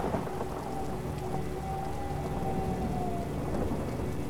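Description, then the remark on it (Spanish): A summer thunderstorm: steady rain pours down while a deep rumble of thunder rolls on continuously, filling the whole scene with no voices present. “A la mayoría de las personas les gusta observar una tormenta de verano y la viven de forma plena, disfrutándola.”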